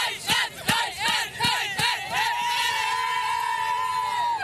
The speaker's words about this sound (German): Dann aber traf Chloe Maggie Kelly in der 110. Minute und unter den englischen Fans brach der Jubel aus 2 zu 1 für England.